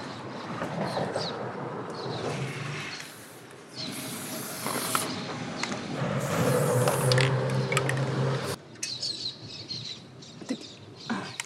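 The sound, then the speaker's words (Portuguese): A spray paint can hisses in two bursts of paint, a short one and then a longer, steady spray, with quieter handling and rattling sounds around them. “É rápido para aprender a dominar esse spray aí, essa saída de tinta?”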